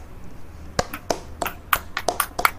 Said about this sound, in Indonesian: Tepuk tangan dulu Anda-anda yang sedang mendengar. Tuh.